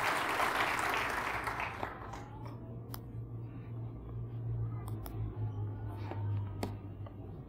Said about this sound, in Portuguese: Dá um glória ao Senhor muito forte aí no seu lugar. Dá um aplauso poderoso ao Rei da Glória. Aleluia.